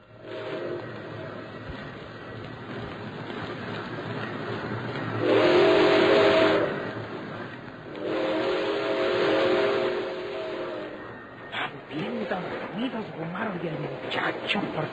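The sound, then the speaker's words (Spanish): Two long, loud blasts of the whistle of a freight train heading for the border city of Matamoros, the second a bit longer, over a steady rumbling hiss, followed by a voice speaking briefly. “Pero nosotros sabemos que ya era demasiado tarde, porque ellos, con Gumaro y Alejandro, viajaban como de moscas en un tren carguero hacia la ciudad fronteriza de Matamoros o por esa ruta.”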